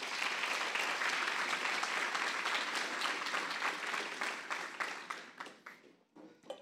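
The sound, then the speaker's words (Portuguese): A large crowd claps for Jesus in a dense, sustained wash of applause that gradually thins and fades toward the end, leaving scattered individual claps. “Será que você pode aplaudir Jesus, por favor?”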